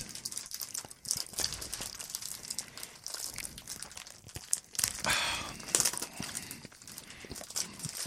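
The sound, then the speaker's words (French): Continuous crinkling and crackling of a giant roasted seaweed sheet being handled and torn, with sharp snaps and crunchy bursts throughout and no talking. “Roasted seaweed giant sheet.”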